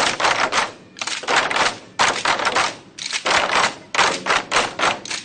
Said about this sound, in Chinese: 在敲击的技巧上，绛州鼓乐有着不同于其他鼓乐的特点。 它击鼓技巧就是第一个是打鼓边，啊，它这个小快板大的吧大，哒吧大哒吧大哒吧大啊，这个就是打鼓边。